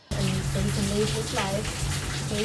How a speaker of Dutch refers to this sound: Dus in Thailand heb ik ook allerlei geluiden opgenomen. De herrie van de stad. De regen.